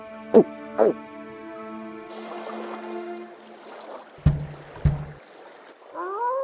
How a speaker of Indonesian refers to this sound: Tinggal menyeberang dengan perahu kecil saja.